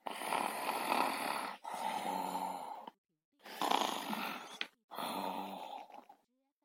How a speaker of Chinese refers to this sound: 女巫温妮想好好的睡一觉。她坐在大扶手椅上，才闭上眼睛两分钟，就打起呼噜来了。